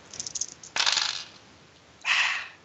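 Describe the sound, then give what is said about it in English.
Dice, including a ten-sided and an eight-sided die, clatter across a table: a few light clicks, then a sharp rattling tumble, a short pause, and a second rolling burst that fades out. No one speaks. “Uh, all right, roll your dice.”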